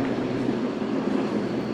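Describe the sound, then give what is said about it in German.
A regional express train from Pümpeldorf arrives at platform 3 of a railway station, rumbling steadily with a dense, continuous roar of wheels and engine and a faint high whine, holding at an even level without talk. “Auf Gleis 3 fährt nun in wenigen Minuten der Regionalexpress aus Pümpeldorf ein.”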